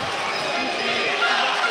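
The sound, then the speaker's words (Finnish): A large ice hockey arena crowd whistles loudly and continuously as Ratinen attempts a penalty shot, shrill whistles riding over a dense wall of crowd noise for under two seconds. “Kimond 2 plus 2 minuuttia ja Ratinen rankkaria yrittämään Ruan yleisön viheltäessä.”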